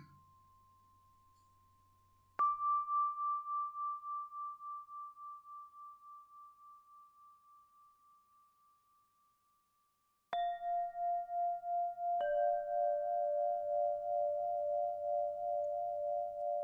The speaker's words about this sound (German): Der Wind, der durch die Äste streicht, bringt die Kristalle zum Klingen. Mal ganz tief und mal ganz hoch.